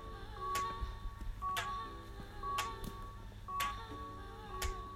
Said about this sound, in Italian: Questi erano l'annuncio di un passaggio del treno e l'abbassamento delle barriere per le macchine.